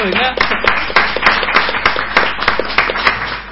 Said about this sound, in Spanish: Venga, todos un aplauso